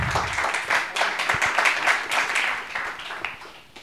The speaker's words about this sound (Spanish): Bueno, pues un aplauso a los cuatro, también por aquí, grandes cracks.